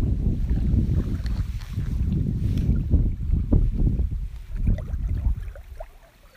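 Small waves on Lake Shikaribetsu in Hokkaido, Japan lap and splash in an irregular rhythm, over a steady low rumble of wind buffeting the microphone. No one speaks.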